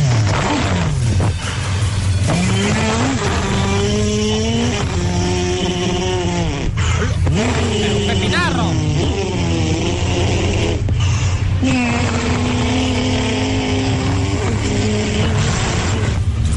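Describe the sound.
A human voice imitates a superbike engine, revving up and down through a series of rising and falling whines with sharp shifts in between, loud, with no other talking.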